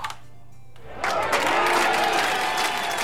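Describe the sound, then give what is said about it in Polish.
A radio ranking jingle on Radio DHT bursts in after a second of near silence, loud crowd applause and cheering with a bright musical sweep underneath, sustained to the end. “no to teraz czas najwyższy zagrać ten sygnał.”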